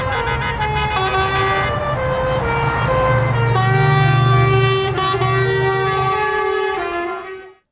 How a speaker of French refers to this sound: Concert de klaxon en guise de soutien aux manifestants.